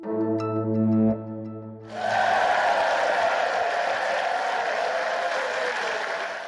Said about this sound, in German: Diesen Applaus, den gab es heute im Landtag in Nordrhein-Westfalen und er galt Hendrik Wüst. Der CDU-Politiker wird der neue Ministerpräsident von NRW.